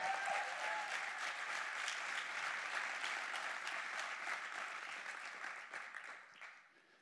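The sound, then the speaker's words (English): A crowd applauds its leaders steadily with dense, rapid clapping at an even loudness for about six seconds, then the clapping thins out and fades away at the end. “Let's give your leaders a big round of applause.”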